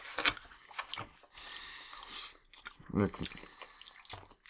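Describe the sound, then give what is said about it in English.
Loud, wet chewing of sloppy rice, with irregular smacking and squelching bursts that come in uneven clusters over a few seconds. “That sloppy, that sloppy rice sound.”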